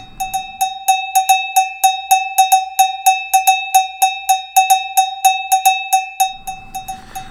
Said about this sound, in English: and so now it's time for our cowbell tip of the day